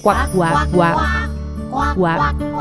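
duck quacking

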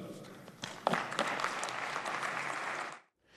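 applause in parliament chamber

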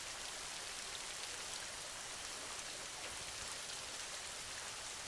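rain falling

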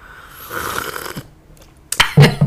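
slurping tea

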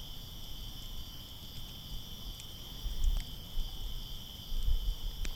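crickets chirping

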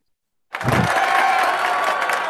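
hand clapping applause

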